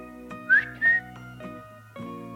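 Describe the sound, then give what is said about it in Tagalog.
Two loud, sharp whistled calls of a Philippine hawk-eagle ring out in quick succession, the first rising, the second held steady, over a sustained tonal musical background. “Ilang saglit lang at biglang may narinig siyang malakas na sipol.”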